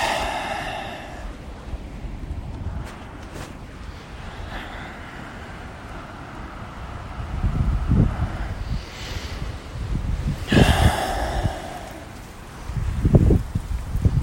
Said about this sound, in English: Yeah, let's do some breathing.